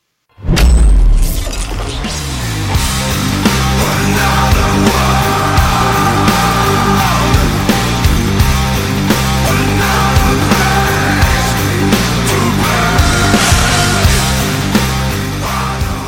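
A heavy metal song bursts in after a brief silence with a sharp crash, then runs loud and dense, with distorted guitars and pounding drums keeping a steady, driving rhythm throughout.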